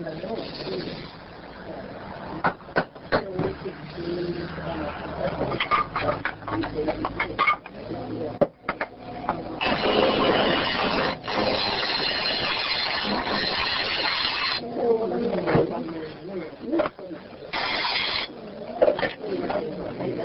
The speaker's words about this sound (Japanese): ろくろ作業の音をお届けします。これ、これ作った音だよってわかるね全部だよ。